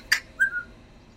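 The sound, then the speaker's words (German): A parrot being walked on a leash by an old woman gives a short whistling call: a sharp bright chirp followed by a clear, high sliding whistle that tails off, heard alone over faint background noise. “An der Leine ist kein Hund. Das ist ein Papagei.”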